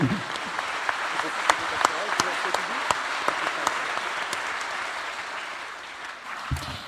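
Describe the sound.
A colloquium audience applauds steadily for the director of Le Monde des religions, a dense wash of clapping with sharper individual claps popping out, then fading as a voice begins at the end.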